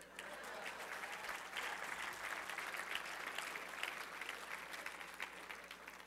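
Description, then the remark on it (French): An audience applauds steadily, a dense wash of many hands clapping at an even, fairly loud level that holds for several seconds without voices standing out. “OK, est-ce qu'on peut l'applaudir?”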